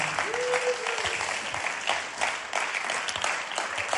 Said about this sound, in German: Und wie es bei uns so üblich ist, stehen wir nochmal auf mit einem großen, warmen Bunsdorfer Applaus.